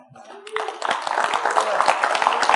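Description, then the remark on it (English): An audience at a church service stands and breaks into sustained hand clapping for students holding their documents. The clapping rises quickly into a dense, steady patter of many claps with a murmur of voices underneath. “Let's stand up and give them a hand clap.”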